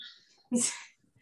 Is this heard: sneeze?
yes